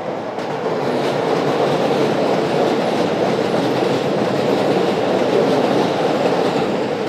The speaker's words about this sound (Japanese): 電車の音が鳴ってますけれど、はい、いや晴れた日にこうローカル路線の電車がわーっと通っていくの見るのなかいいですね気持ちが良いというか